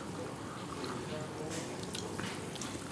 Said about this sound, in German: es sprudelt sehr stark, finde ich. Ja, es ist, es ist ein Sprudelwasser. wir, haben, wir haben hier Sprudelwasser im Glas. Das wäre jetzt ganz doof, wenn das nicht sprudeln würde.